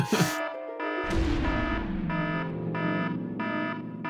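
A loud electronic alarm sounds in a steady pulsing rhythm of harsh, buzzy tones, about two per second, over a low rumble after a brief burst at the start.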